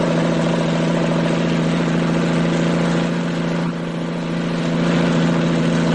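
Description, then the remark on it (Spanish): A helicopter engine is started and the helicopter begins to rise into the air, with a loud, steady mechanical drone, layered low humming tones and a fast rhythmic flutter, holding an even level throughout with no voices. “Los jóvenes ven como Chufán pone el helicóptero en funcionamiento y comienza a elevarse por el aire.”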